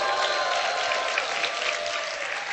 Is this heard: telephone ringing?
no